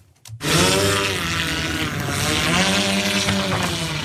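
Loud propeller buzz of an Airspeeder MK3 electric flying race car, a multicopter with four propellers, four metres long and 130 kilos, kicks in abruptly and holds steady, its droning pitch rising and falling slightly, with no voices.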